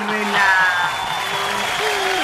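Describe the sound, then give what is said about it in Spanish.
An audience claps steadily for a couple of seconds, a dense, continuous patter of many hands with cheering and voices mixed in underneath. “¡Ay, aplausos para”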